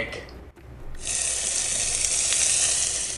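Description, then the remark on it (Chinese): After a brief quiet moment, an egg starts frying in a grey pan, a loud, bright, steady sizzle with crackling hiss that holds unbroken to the end. “哇哦，他把蛋煎好之后啊，就放到了另外一个盘子。”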